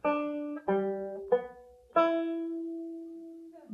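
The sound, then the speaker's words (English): Four plucked banjo notes play the "My Dog Has Fleas" tuning phrase one after another in a steady phrase, clear, the last note held and left to fade slowly. No voices. “When I pick My Dog Has Fleas on the banjo like that, Miss Brooks, we spring our first humorous anecdote.”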